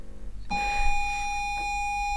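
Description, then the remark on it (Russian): A home computer loading a game from cassette: after a moment of faint hiss, a steady, piercing electronic tone starts abruptly and holds unbroken at a fairly loud level, with a buzzy edge. “И вот самое, наверное, космическое это тот звук, с которым она загружалась, потому что он навсегда в моей памяти.”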